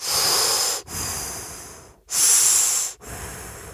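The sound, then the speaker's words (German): A person imitates the heavy mechanical respirator breathing of Darth Vader from Star Wars, with four long, hissing breaths alternating inhale and exhale in a steady rhythm, fairly loud, with no talking. “Na, warte mal man das mal ein bisschen so nach unten, sonst hört man den, den äh, Wahrheit zu atmen, wie Darth Vader.”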